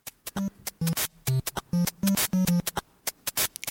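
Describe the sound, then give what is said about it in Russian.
Chiptune music with a low, soft triangle-wave bass line playing short, bouncy notes over sharp bursts from a white-noise channel and a recorded-percussion channel, steady, with no voices. “Дальше появляется треугольник.”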